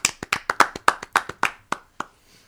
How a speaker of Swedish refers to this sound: Vi kan ge den redan nu va? Ja, en applåd till Olsson.